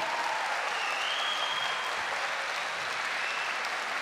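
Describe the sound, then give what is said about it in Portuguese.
Sustained applause from a sizable crowd fills the whole moment, a dense, steady wash of clapping hands at a fairly even level with no voices breaking through, as listeners applaud the truth of the word at a preacher's call. “Será salvo, meus queridos, aplauda a verdade da palavra.”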